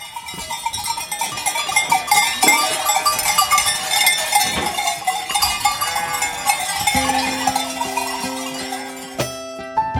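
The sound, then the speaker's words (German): A jangle of many sheep bells clanking and ringing continuously, fairly loud, with overlapping metallic tones shifting as the flock moves; no one speaks. “Es kommt zu Gimpeln und ich kehre. Sein Glecki fein und klar.”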